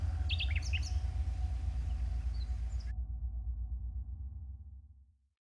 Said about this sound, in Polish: Za drzwiami Przywitał mię, skąpany w rosach porannych, zbrzmiały brzękiem owadów i ptaszków cmentarz.